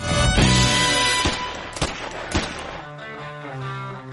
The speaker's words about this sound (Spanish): Ese fue el disparo de calibre 44.